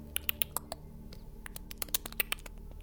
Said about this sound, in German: Hört ihr das? Und als ihr dann alle ganz still seid, hört ihr leises Klicken in der Dunkelheit. Unregelmäßiges Klicken.